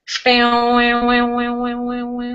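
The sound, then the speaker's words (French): A voice imitates a deep vibrating string with a sustained, buzzing low hum that holds one steady pitch for about two seconds. Bright overtones pulse in a slow, regular wobble, preceded by a short breathy onset. “Et donc il y a eu une espèce de grande corde qui a vibré au moment où j'ai mis le son.”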